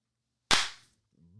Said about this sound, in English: Boom. Love it. That's how it's done when you work with filmmakers. You clap on the right